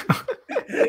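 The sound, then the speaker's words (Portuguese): A quick run of forceful sneezes, several sharp bursts packed into under a second with brief gaps between them. “saúde, saúde, saúde.”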